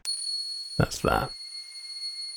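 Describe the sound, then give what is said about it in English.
A small tingsha meditation cymbal, with some processing added, gives a bright, sustained ring that hangs steadily through the whole moment, its shimmering high tones holding evenly while a voice briefly speaks over it. “I'll show you there's a, a tingsha cymbal as well, which sounds like this on its own. It's a little meditation cymbal, you know, those tiny ones that you use to like signify the end or beginning of meditation, I think.”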